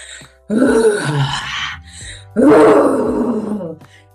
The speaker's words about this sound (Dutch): Schreeuw. Schreeuw heeft te maken met dat we onze stem durven laten horen, maar daarmee ook ons bekkengebied activeren. Dat ons geluid, onze stem, de stem van ons hart, mag er zijn.